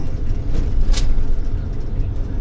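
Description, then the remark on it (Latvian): A bus rumbles along a rough gravel road after leaving Balvi, with heavy low-frequency engine and road noise throughout and brief rattling bursts from the bumpy surface. “Izbraucot no balviem, jābrauc pa grāmatas seguma ceļu, un tāds tas ir teju visu maršrutu uz doto momentu viņš kaut cik sakarīgā stāvoklī ir.”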